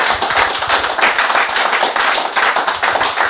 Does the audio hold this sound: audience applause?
yes